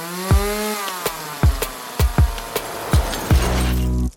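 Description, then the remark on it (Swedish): A chainsaw engine revs and drones loudly while a series of sharp cracks and thuds punctuate it, ending in a sustained, heavy roar as it cuts, with no voices. “Jag tänkte komma med sågen.”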